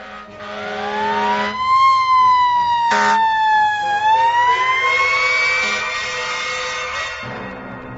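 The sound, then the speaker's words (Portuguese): The siren of a second rescue vehicle arriving at a motorcycle accident scene wails steadily, its pitch sliding up and down in long sweeps, loud throughout with traffic rumble beneath. “Um segundo carro de resgate chegou a seguir.”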